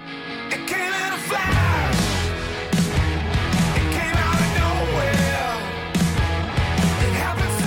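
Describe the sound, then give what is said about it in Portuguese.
A rock band's new single plays loud and continuous, with a sung vocal line over dense guitars and steady, punchy drum hits that kick in after a brief quieter opening. “já há um novo single, chama-se …. Uhum. Vamos ouvir um pouco?”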